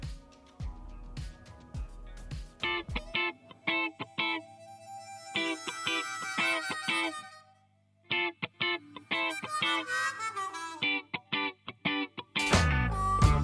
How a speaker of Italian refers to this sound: È una canzone di protesta verso l'astensionismo, verso il mondo politico attuale e lo andiamo ad ascoltare esattamente adesso.